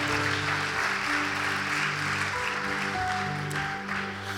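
An audience at a Sunday church service claps steadily and loudly for several seconds, applause for the King, a dense, continuous wash of applause over sustained low musical tones that hold underneath throughout.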